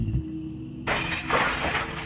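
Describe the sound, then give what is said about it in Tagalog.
Clay flower pots of medicinal plants are smashed in a house garden at nearly one in the morning, in two quick, loud bursts of crashing and crumbling, the second following closely on the first, over a steady low background hum. “May nagbabasag ng mga pasuko sa garden namin sa loob ng bahay.”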